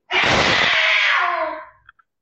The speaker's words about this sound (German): Ah. Das war meine Katze. Geht's dem gut? Im ich Prinzip ja. Hier gibt es gerade einen kleinen Katzenkampf.